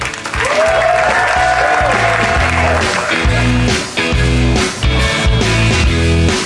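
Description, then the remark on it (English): Loud, driving instrumental bumper music for a radio news show break, signaling more headlines after the break, with punchy bass hits in a steady rhythm and a sweeping melodic line over the top, playing on its own with no voices. “I hear that music, which says more headlines when we return.”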